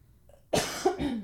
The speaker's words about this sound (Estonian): issand, ma köhin uuesti